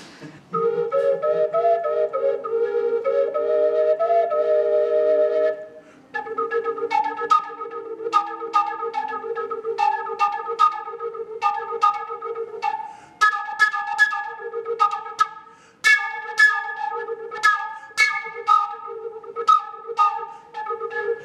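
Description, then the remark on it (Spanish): A wind instrument played open, with no holes covered, overblown to jump between bright harmonic notes: a few wavering held tones, then a brisk, rhythmic run of accented notes, with no talking. “No estoy usando las obturaciones, no solamente tocando mientras sobre soplando”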